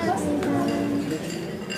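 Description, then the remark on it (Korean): Dishes clink as a waiter sets three plates, one with steak, down on a table in front of a couple, a couple of light ceramic knocks with a brief ringing tone, over a murmur of background voices. “종업원은 아내와 내 앞에 접시를 내려놓고 아내와 나 사이에 나머지 접시를 내려놓았다.”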